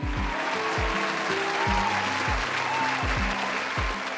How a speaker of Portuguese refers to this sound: Palmas para o Contos Perdidos.